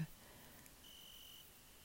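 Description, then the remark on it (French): Cicadas buzz in a steady, high-pitched drone that sets in partway through and holds, faint over a quiet outdoor countryside background at a family house in the middle of nowhere, with no talking. “Vous allez entendre des cigales.”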